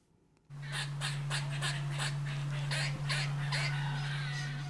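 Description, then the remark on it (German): Grey American squirrels give a rapid series of harsh, chattering barks, about a dozen evenly spaced, loud calls, over a steady low hum in the Bosco di Vanzago forest near Milan, Italy. “Sie sind laut, frech und zahlreich. Graue amerikanische Eichhörnchen im Bosco di Vanzago bei Mailand.”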